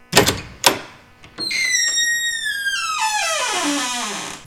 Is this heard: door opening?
yes